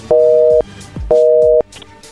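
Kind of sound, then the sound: signal or alarm, telephone busy tone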